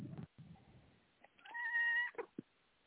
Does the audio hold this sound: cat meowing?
yes